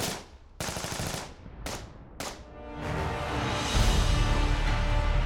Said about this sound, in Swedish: Kuomintang attackerade sågverket och båda sidorna avlossade skott med sina vapen.